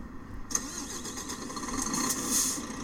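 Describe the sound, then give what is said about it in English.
The engine of a white Renault truck in a truck-driving video game turns over and catches about half a second in, then settles into a steady rumbling idle that swells slightly near the end, in a dirt-floored factory car park in Berlin. No voices are heard. “Uh, I'm in my white Renault truck in the middle of a uh,”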